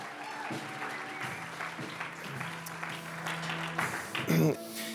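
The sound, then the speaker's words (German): An audience at a church service applauds steadily to welcome first-time visitors, a dense wash of many hands clapping for several seconds, with a few voices murmuring and a brief louder cheer near the end. “Komm, wir geben euch mal einen Applaus.”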